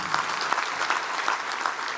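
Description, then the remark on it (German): A crowd applauds steadily, a dense wash of many hands clapping at an even loudness for about two seconds, with no one speaking over it. “Applaus”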